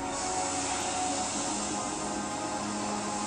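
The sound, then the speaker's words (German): A steady wash of ocean surf, a continuous broad rushing hiss that holds an even loudness throughout without distinct swells or breaks, and no voices. “Du hörst das Meeresrauschen.”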